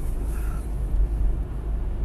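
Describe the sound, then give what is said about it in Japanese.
A steady, deep rumble of road and engine noise from inside a car being driven in a traffic jam. It holds constant throughout, with no voices over it. “車運転中ですからまあちょっとこれラジオ喋りながら行くっていうのもちょっとよく前は見てるんですけどねなかなか難しいまあ安全運転で行きたいと思いますねちょっと気を取られちゃいけないとちょっと今前を見てますああ渋滞してんですね”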